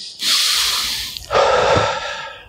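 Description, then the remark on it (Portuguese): A single deep breath: a long, airy inhale followed straight away by a fuller, slightly lower exhale, with no talking. “Olha como é gostoso respirar.”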